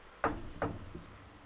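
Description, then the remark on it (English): Two quick knocks on a wooden surface as a person knocks on wood, evenly spaced, with a faint softer tap trailing after; no one speaks. “That was me knocking on wood if you couldn't hear it.”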